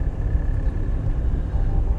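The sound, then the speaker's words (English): A steady, low rumble of road and engine noise fills the interior of a car sitting in traffic while heading eastbound, a constant muffled drone with no voices, holding an even loudness throughout. “this is Traffic Talk, where we talk about anything while we sit in traffic”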